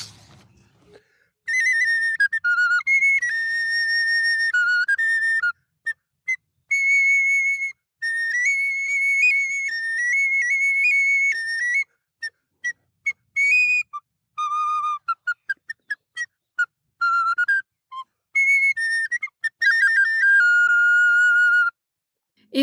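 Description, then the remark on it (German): A solo recorder plays a bright, pure-toned melody, mixing long held notes with quick runs of short notes and brief pauses, clear with no voices. “Er hat eine Leidenschaft für die Blockflöte.”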